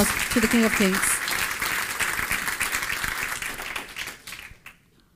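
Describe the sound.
Loud, sustained audience applause given to the King of Kings, with dense, crackling clapping that holds steady for several seconds, then thins and dies away at the end. Brief voices and whoops rise over it near the start.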